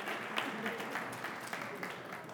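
Steady crowd applause, a dense wash of many hands clapping at an even level with small bursts of sharper claps throughout.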